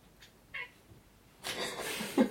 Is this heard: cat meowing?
yes